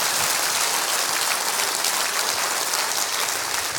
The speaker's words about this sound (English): Would you lift your hands and clap them over your head like this right here? Come on, come on, come on.